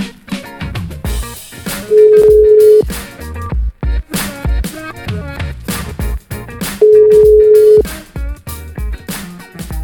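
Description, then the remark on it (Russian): A telephone ringback tone purrs twice, each steady beep lasting about a second with a long pause between, heard over busy background music while a call is being placed to a restaurant in Saint Petersburg. “Прям сюда звоним, сейчас уточним наших ребят питерских.”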